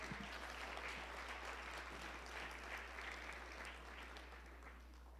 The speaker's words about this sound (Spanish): Gloria a Dios. Démosle un aplauso a Dios, hermano.